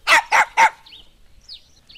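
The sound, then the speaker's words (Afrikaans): A dog barks three times in quick, evenly spaced succession, loud, followed by a few faint high-pitched whines or yips trailing off. “kan dit nie meer verduur nie en hy begin weer blaf.”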